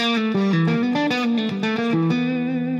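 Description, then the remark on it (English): A distorted electric guitar plays a quick, fluid run of hammer-ons and pull-offs, notes shifting rapidly up and down before settling on a sustained tone, loud with no talking. “Where when I'm here, I tend to play it s- sequentially with the other notes, okay, and hammer ons and pull offs or whatever”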